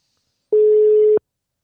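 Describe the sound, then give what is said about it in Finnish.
A single steady electronic telephone ringback tone on an outgoing call to Riihimäki sounds for a little over half a second, clean and fairly loud, starting and stopping abruptly with silence around it. “Kokeillaanko soittaa Riihimäelle ja tota, katsotaan Joo. saadaanko Ninni puhelimeen. Meillähän tätä tekniikkaa kokeillaan ensimmäistä kertaa ja tota, niin, täällä ainakin hälyttää”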